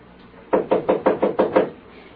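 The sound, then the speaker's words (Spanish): A quick run of seven firm knocks on a door by a policeman, evenly spaced and fairly loud, with a dull woody thump to each, then quiet; no one speaks. “Yo me voy a asomar por el bujero de la llave, mi papá, y le digo quién es el que toca.”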